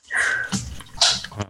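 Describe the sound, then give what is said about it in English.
A dog makes a few short, breathy snorts or sneezes, quick bursts of air and wet sniffing with no one talking. “Uh, so I guess what that was my dog.”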